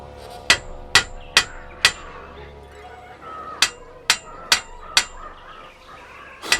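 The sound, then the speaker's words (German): A hammer taps on the metal bars of a cage, sharp ringing clinks struck in an even run of four, a short pause, then four more and a final single tap, fairly loud. “Den Hammer benötige ich zu einem anderen Zweck. Zu diesem.”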